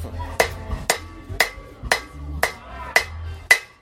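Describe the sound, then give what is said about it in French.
Hammering a small piece of metal into a thin sheet, with seven or eight sharp, ringing blows struck at a steady, even pace about half a second apart. The strikes are loud over a low background rumble. “là, je sais faire une petite feuille.”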